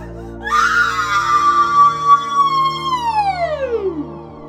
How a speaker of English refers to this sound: The first time James booted her up, she screamed.